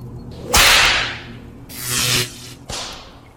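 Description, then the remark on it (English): Three loud whip cracks, each a sharp snap trailing into a brief swishing decay, spaced about a second apart, with no voices. “Guard, give her the whip!”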